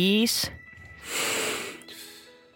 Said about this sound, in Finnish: Mä itse tein aamulla niin, että mä keskitin sen numeron mun vatsaan, koska toi hengitys pitää lähteä vatsasta. Niin, että sä oikein pullistat vatsaa ja vedät sisään.